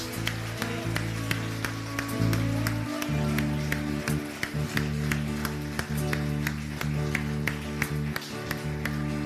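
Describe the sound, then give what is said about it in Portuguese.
An audience at a church service applauds in praise of the Lord, a steady wash of clapping with sharp rhythmic accents, layered over a loud sustained low musical drone throughout. “Aleluia, aplauda o Senhor, queridos.”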